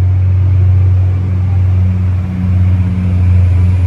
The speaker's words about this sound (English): I'm letting this train pass. So, I'm in this place, the train passed.